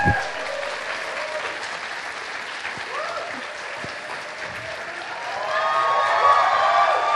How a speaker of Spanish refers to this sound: denles un fuerte aplauso porque ya llegaron, ya están aquí